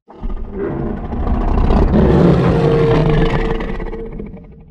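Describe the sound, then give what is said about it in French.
A deep big-cat roar, slowed down five times, swells and holds for several seconds. It is layered with crumpled sheet metal, pitch-shifted with its highs cut and mixed behind the roar to recreate a dinosaur cry. Loud and rumbling, with no voices. “Superposons les deux sons en mixant le fauve ralenti au premier plan.”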